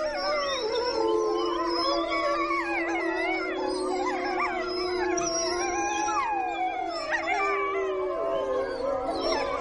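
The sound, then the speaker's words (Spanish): A pack of wolves howls together, many long, sliding voices overlapping into a dense, continuous chorus. Higher yips and wavering tones weave through it for the full stretch, with no talking. “Una manada de lobos aullando al unísono componen realmente una musicalidad que únicamente habrá podido ser superada por ese otro grande depredador que es el hombre.”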